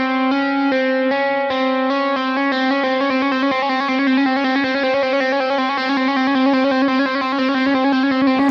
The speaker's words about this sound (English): I'm going to go to the fifth fret of the third string just because I always do, but you could go anywhere you wanted to. And I'm going to do a series of hammer-ons and pull-offs from my, my first finger to my middle finger.